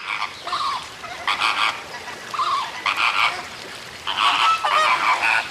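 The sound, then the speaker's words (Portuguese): A flock of flamingos calling as the group sets off in search of water, a series of loud, nasal honks in uneven overlapping bursts, with no one speaking. “A raposita voltou a oferecer-se, mas os outros não aceitaram a sua proposta e um grupo de flamingos partiu em busca de água.”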